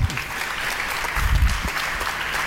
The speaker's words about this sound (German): Wir fragen mal nach beim Goldmedaillengewinner aus Rio. Hier ist er. Einen ganz großen Applaus für Nico Kappel. Herzlich willkommen.